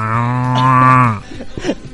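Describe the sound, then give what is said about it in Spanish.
A person imitates a cow, letting out one long, loud, steady moo that holds for about a second before breaking off into brief, softer vocal noises. “O sea, ya nada más él escucha las vacas y está como...”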